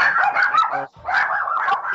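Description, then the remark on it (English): A chorus of dogs barking together in a dense, overlapping clamor, loud, with a brief pause near the middle before the yapping picks up again. “dogs love him too.”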